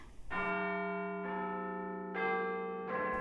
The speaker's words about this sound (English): I heard the clocks from the different steeples chime out the last hour of the day, one after the other, like echoes taking up the refrain and dying away in the distance.